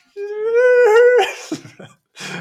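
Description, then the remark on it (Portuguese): Someone imitates whale song with a single long, moaning hoot that rises slightly and holds for about a second, followed by a few breathy, crackly sounds, fairly loud. “Tipo, para já deve ser das poucas músicas que têm eh, que utilizam aquela voz, eh, aquela voz mítica e, e atmosférica que é a voz da baleia mesmo.”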